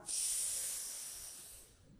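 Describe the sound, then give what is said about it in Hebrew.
A single strong, hissy inhale through the left nostril only, with the right nostril blocked, during a seated breathing exercise; sharp at the start and tapering off over about a second and a half, with no talking. “רק דרך נחיר שמאל כשאנחנו עושים נשימה כזאת שאיפה חזקה”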